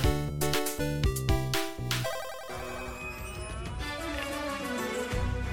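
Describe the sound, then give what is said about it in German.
Video game soundtrack music plays on its own: punchy rhythmic chords for a couple of seconds, then a fuller, sustained melodic passage at a steady, moderate loudness. “Ja, ihr hört schon im Hintergrund, das ist aus Shadow Gambit, The Cursed Crew.”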